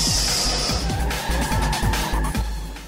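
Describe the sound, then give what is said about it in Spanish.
Loud, continuous roar of racing car engines in the intro of the motorsport program Sobre Ruedas, with rising and falling revs, repeated sweeping pitch climbs like gear shifts, and a brief high tire squeal early on. “El programa donde rugen los motores y se deja sentir todo el análisis de automovilismo en el mundo.”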